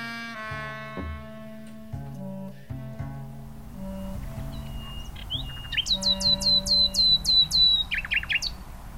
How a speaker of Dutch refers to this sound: Weer die nachtegaal.